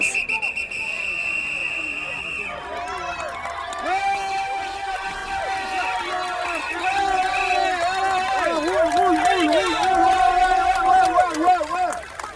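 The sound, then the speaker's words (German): A steady whistle blast gives way to a loud roadside crowd cheering and shouting as racing cyclists of the Paris-Roubaix race rush past, with horns and voices swelling throughout; traffic has been stopped for the riders. “um 30 Sekunden die Rennfahrer vorbeisausen zu sehen”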